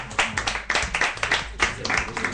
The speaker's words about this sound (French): ah, bravo on applaudit, on applaudit